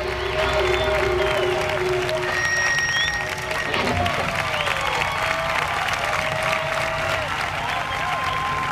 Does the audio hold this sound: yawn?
no